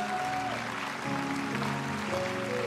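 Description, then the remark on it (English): A crowd at a Christian gathering claps steadily for visitors who came from Montreal, Canada, a dense wash of applause with sustained musical tones or voices running underneath. “Give them a great big hand clap.”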